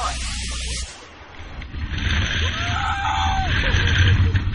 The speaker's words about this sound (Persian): حتما دارید با خودتون فکر میکنید که این صدای چیه این صدای ویدیویی مربوط به بانجی جامپینگ که توسط کاربران در شبکه های اجتماعی قرار گرفته